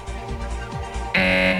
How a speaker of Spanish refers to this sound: tienes que levantar la mano y ahí suena la chicharra, que suena más o menos así.